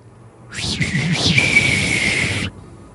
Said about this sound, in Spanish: Me dijeron que todos ustedes chiflaron conmigo, espero que sí, porque me hubiera sentido muy solo si no lo hubieran hecho.